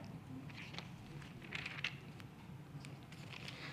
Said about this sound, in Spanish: Hechos, el libro de Hechos, hace, hace mucho que Realmente extrañaba escuchar las hojas de la Biblia pasar.